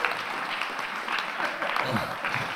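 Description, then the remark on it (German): A crowd claps steadily, a dense wash of many overlapping hand claps at an even loudness, with faint voices mixed in toward the end. “Gebt dem Leiden einmal einen riesen Applaus.”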